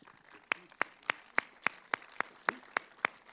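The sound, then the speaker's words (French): Steady, evenly spaced hand claps, about a dozen sharp slaps at a brisk regular pace, sounding like one person or a small group applauding rather than a full crowd, with no talking, at a festival event in Angers, France. “Et j'ai envie tout simplement de vous applaudir, vous le public et toute l'équipe qui rendait ça possible.”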